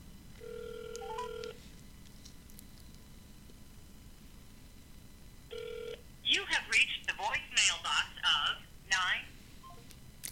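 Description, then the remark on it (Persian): A phone call connecting: a steady electronic ringing tone plays, pauses for a few seconds, sounds again briefly, then gives way to a short burst of an automated-sounding voice over the line. “بهش زنگ بزنیم من که 99 درصد احتمالش رو میدم که نه 999 از هزار احتمالش میدم این تلفن انجام نخواهد شد ببینیم”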